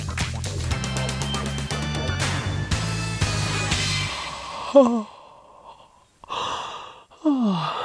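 A short musical jingle gives way to a drawn-out yawn: a breathy inhale followed by a falling, voiced groan, preceded by a brief sighing sound.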